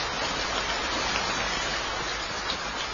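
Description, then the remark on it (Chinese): Steady, dense thunderstorm rain heard outside the window hisses without pause. It is a broad, even wash of patter at a constant loudness, with no voices and no clear thunder claps. It serves as the backdrop for a scene from the play Thunderstorm (Leiyu). “就是呃窗外传来的 啊啊窗外 雷雨 窗外传来好吧 声要有这样的气氛。”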